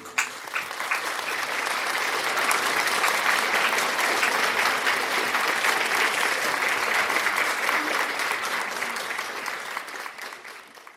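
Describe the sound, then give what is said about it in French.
Sustained audience applause for the Holy Ghost, a dense wash of many hands clapping steadily for about ten seconds before gradually thinning out at the end. “Applaud, applaud, applaud, applaud. Applaud for the Holy Ghost, applaudis pour le Saint-Esprit.”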